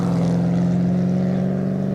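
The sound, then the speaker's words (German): The V8 engine of a 1957 BMW 507 coupé sports car with 150 hp runs with a loud, deep, steady rumble, holding a fairly even pitch for two seconds with no one speaking. “Der BMW 507, Baujahr 1957, 8 Zylinder, 150 PS.”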